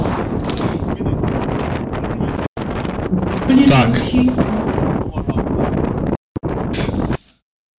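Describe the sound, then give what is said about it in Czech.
Wind blows hard into the microphone, a loud, continuous rumbling buffet across the whole recording with brief dropouts near the end, while a voice briefly speaks over it. “Tak, já to musím už zastavit, ano, protože to bylo takový, on ten, ten vítr do toho hrozně, hrozně to fučel.”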